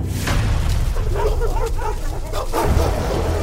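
A pack of dogs barks sharply through a village in quick, overlapping bursts, loud over a steady low rumble, with a few yips mixed in and no one talking.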